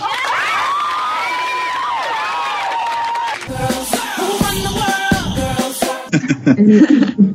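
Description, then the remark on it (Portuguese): A crowd cheers and shouts with high whoops over a dense wash of clapping, the noise swelling and breaking into bursts before fading into scattered excited voices. “Outra salva de palmas.”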